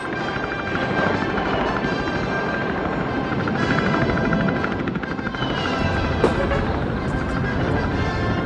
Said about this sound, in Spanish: Parece un pájaro. Por el ruido que hace parece un avión. Pues ni una cosa ni la otra, es un helicóptero.